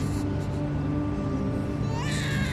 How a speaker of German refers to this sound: Von weitem ist das Schreien eines Babys zu hören.